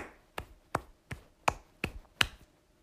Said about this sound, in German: Ja, geil. Geil gemacht von dir. Ein Applaus an mich selbst.